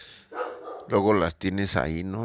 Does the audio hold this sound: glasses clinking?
no